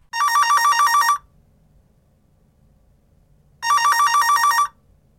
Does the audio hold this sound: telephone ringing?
yes